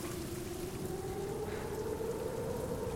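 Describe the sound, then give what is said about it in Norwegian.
Steady, heavy rain pours down in a dense, unbroken hiss for the whole stretch, with a faint low droning tone running beneath it. No voices. “Forferdelig vær i dag, syns du i?”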